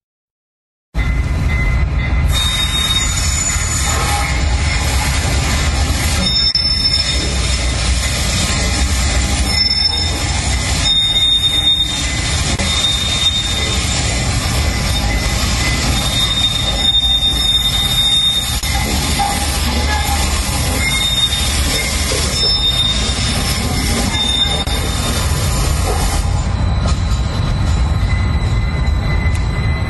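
A freight train rolls steadily past at close range, its cars screeching and squealing on the rails over a deep continuous rumble for the full half minute, with a bell ringing.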